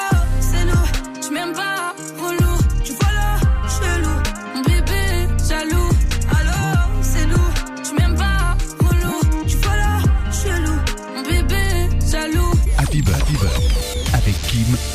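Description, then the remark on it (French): A pop song track from an album plays loud and continuous, with a steady driving beat, thumping bass and dense layered instrumentation filling the whole stretch, briefly thinning out a few times before the groove resumes. “C'est parti, premier son qu'on va kiffer maintenant. Allô, un des sons extraits de l'album et on y revient tout de suite.”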